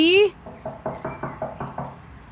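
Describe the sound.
A short voiced call opens, then a woman who takes blood pressure readings knocks on the house door of her regular patient about eight times in a quick, steady rhythm, moderately loud.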